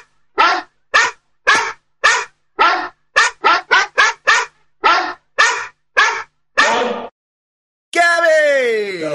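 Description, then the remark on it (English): A female dog barks repeatedly and loudly as the postman arrives, about a dozen sharp barks in a steady series with a few quick pairs, followed by a sustained whining, howl-like cry at the end. “I thought I heard her barking a minute ago.”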